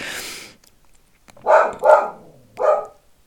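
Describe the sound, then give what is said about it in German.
A dog barks three times in quick succession, two close together and a third after a short pause, loud, following a brief burst of noise at the start. “Jetzt weiß ich gar nicht, was die Holly wieder hat. Irgendwer läuft wahrscheinlich draußen vorbei.”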